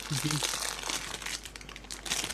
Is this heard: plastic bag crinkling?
yes